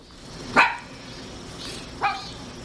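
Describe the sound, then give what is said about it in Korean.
A dog named Jjonggi, running up to a man eating a sausage, gives two short, sharp barks about a second and a half apart, the first louder than the second, with a faint background hiss and no one speaking. “그때 쫑기가 쪼르르 달려오더니 그를 쳐다봤다.”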